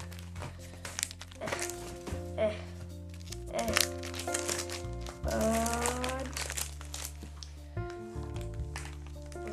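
Papers crinkle and rustle in several short bursts, like hands rummaging through a box in search of identity papers, over a steady droning musical background with a few soft thumps.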